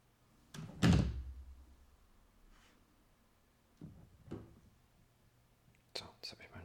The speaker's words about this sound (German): Mikrofonrekorder umgeschmissen. Das passiert. Aber einfach auch noch ein Geräusch.